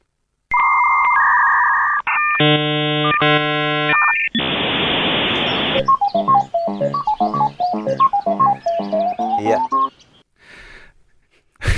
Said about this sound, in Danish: ja, hvem, øh, hvem kan ikke huske sådan en god øh, gammel øh, knasende lyd fra en, fra en tysk ruter?